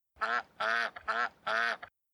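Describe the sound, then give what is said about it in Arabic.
A duck quacks four times in a steady rhythm, each call a loud, nasal, drawn-out honk, with short pauses between. “في قديم الزمان نظرت السيدة بطة إلى فراخها”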